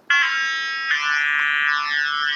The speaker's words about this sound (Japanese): 試しに音とか鳴らしてみると、はいどんくらい大丈夫かなシンセサイザーなんで、こうやって作れると音が、音が変わります。